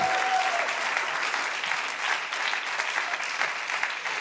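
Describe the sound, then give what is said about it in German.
Steady applause from a crowd at a church service, given after a dance, a dense rush of many hands clapping at an even, fairly loud level for a few seconds, with no one speaking over it. “Komm, lass ich jetzt mal einen Applaus geben.”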